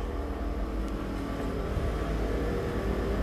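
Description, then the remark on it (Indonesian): Motorcycle engines rumble steadily outside at night, a continuous low drone with slight swells as the bikes pass. No one speaks. “Malam-malam suka banyak suara motor tau.”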